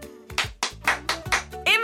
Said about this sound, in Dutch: handen klappen.